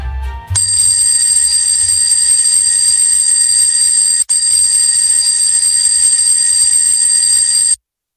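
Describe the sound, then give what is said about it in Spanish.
A loud alarm clock bell rings continuously for about seven seconds, shrill, with one brief break partway through before it abruptly stops. “El despertador de los lunes, con Nacho Herranz y todo su equipo.”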